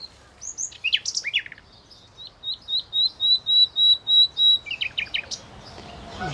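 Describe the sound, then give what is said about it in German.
Nightingale song played from the Naturblick phone app: quick varied chirps, then a run of about ten clear, repeated whistled notes swelling in loudness, ending in rapid trilled phrases. Fairly loud, with no talking. “Jetzt spielt sie Nachtigallgezwitscher aus der Handy-App Naturblick ab, in der Hoffnung, dass die echten Nachtigallen darauf mit Gesang reagieren.”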